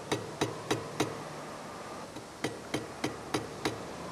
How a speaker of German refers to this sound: Bei Sedual wird gehämmert, gebohrt, vermessen. In den luftigen Werkhallen werden derzeit 65 mexikanische Jugendliche zum Werkzeug- und Industriemechaniker ausgebildet.